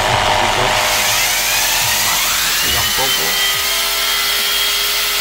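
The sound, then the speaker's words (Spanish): A small electric blender plugged into a power inverter in a car, with the car's engine not running, whirs steadily and loudly throughout, a continuous high-pitched buzz, while a man speaks briefly over it. “Ahí veis, enchufando la batidora.”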